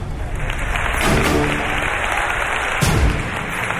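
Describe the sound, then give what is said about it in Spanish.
An audience at the live Kiss morning show broadcast from Pamplona breaks into steady, dense applause for Gloria Serra that fills the whole stretch, a constant wash of many hands clapping at once, with a slight swell near the end and no voices over it. “Un aplauso para Gloria Serra.”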